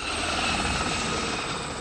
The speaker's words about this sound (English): now the helicopter propeller will bring you down here. Are you ready? Hmm, she's too afraid to go down with the helicopter propeller.